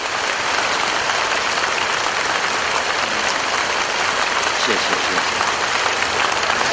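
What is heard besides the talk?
audience applause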